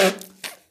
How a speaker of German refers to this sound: Gesundheit. Danke, sorry. Da ist ein kleiner Elefant äh, bei dir durch den Raum gelaufen.